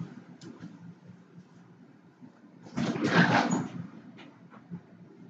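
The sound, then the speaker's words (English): A door opens with a single rushing, scraping burst lasting about a second, louder than the low, steady background rumble around it. “Door.”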